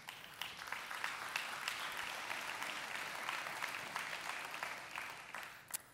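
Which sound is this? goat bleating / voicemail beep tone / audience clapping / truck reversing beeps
audience clapping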